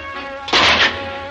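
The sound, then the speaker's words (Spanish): A single loud crash of a prison cell door being smashed by Obelix as he passes through, a burst of splintering impact lasting about a third of a second before fading into a low background hum. “Obelix destroza la puerta de la celda al pasar.”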